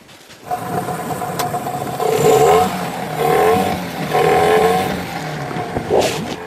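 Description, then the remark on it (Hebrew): A small fishing boat's motor starts up and runs steadily, its engine revving up in several surges before settling into a loud, continuous drone, as the boat sets out to sea from Jisr az-Zarqa at six in the morning in morning mist. “עכשיו, אני, ברגע שאני מניע מנוע, אתה תשב, תתכונן, תהיה מוכן.”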